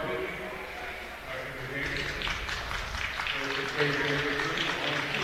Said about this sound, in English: comes out, gets a nice hand by the Rockvale crowd.